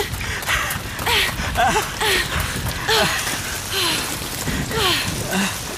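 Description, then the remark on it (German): Heavy thunderstorm rain pours down in a steady, dense hiss throughout, heard while sheltering under a leafy canopy in a ground hollow, with someone making short breathy vocal sounds over it but no clear words. “Zumindest schützt uns das Blätterdach ein wenig vor dem Regen.”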